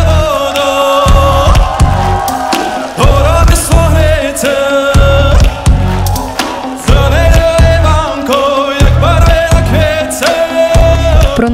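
A man sings a Ukrainian folk song over a loud, full band, with heavy low drum hits pulsing beneath the sustained vocal line throughout.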